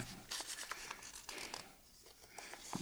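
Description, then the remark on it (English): Soft paper rustling and crinkling, a run of dry crackles and scrapes as a worn, beat-up little piece of paper kept in a wallet is unfolded, with no voices. “And uh, I show people this little piece of paper, and I'll say, This is it, you need three things to know where this is, and without all three things, then you can't tell.”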